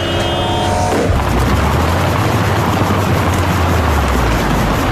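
Loud, dense traffic roar with vehicles rumbling past, a steady wash of engine noise and low rumble; a brief tonal honk-like sound opens before the continuous traffic takes over.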